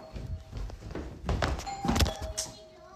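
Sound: doorbell ringing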